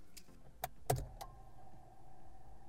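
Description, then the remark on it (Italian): A car key slides into the ignition of a car with a manual gearbox with a few metallic clicks and a sharp click as it turns to start the car, followed by a steady faint electrical hum. No one speaks. “Per avviare la macchina bisogna inserirla nel blocchetto e girarla.”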